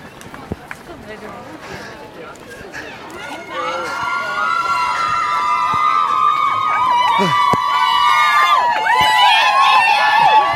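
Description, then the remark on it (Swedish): A crowd along the route near Avenyn and Vasaparken cheers and shouts encouragement to passing runners, the noise swelling steadily louder with high whistles and excited voices layered over a continuous roar. “En sån hejaklack skulle vi haft.”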